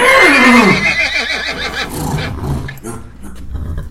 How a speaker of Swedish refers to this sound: Eh, längre in i stallet så hör ni hästarna.